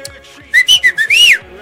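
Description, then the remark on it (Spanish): A short melodic mouth whistle meaning "I've arrived, I'm here", about five quick notes, the last one longer and sliding up then down, loud, with a faint voice murmuring underneath. “Y yo estoy chiflando, güey.”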